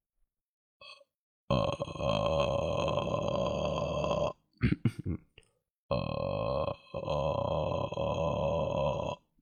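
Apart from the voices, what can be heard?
vocal fry voice demonstration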